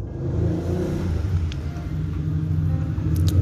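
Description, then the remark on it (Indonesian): A motorcycle passes by with a steady, low rumbling engine drone that holds at a moderate level for a few seconds, with no talking over it. “oh motor”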